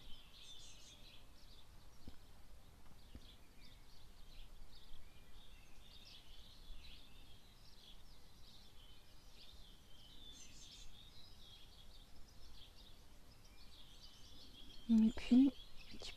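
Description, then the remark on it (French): Birds chirp and twitter steadily, a soft, continuous outdoor chorus of small, high calls over a quiet ambient background. “Les oiseaux, les abeilles, le léger bruit du vent dans les arbres.”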